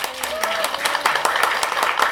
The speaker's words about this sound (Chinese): 哇，从韩国大妈们热烈的掌声可以知道，图拉克这几位年轻女生们做的事情，让他们感到非常赞同。